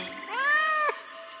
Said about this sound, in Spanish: dijeron los ojos y luego repitieron un largo miau y se echaron a reír. ¿Eres un gato? preguntó el burro. Sí.